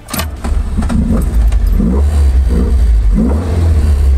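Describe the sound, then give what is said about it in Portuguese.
An Alfa Romeo engine with Weber carburetors revs, a deep steady rumble with a few rising pulses of throttle blips, loud and continuous with no talking. “Você sente esse cheiro do estofamento, de tudo couro, de, do, na madeira do volante, tudo isso e deixa o motor dar uma giradinha.”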